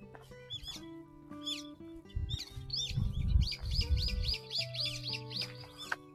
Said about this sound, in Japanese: あ、桜ももう、桜のある公園に来たんですが、あの、もう葉っぱ出てますね。葉桜。鳥の声聞こえますかね。あ、すごい。桜の木に止まってます。鳥、鳥たちが。何の鳥だろう、これ。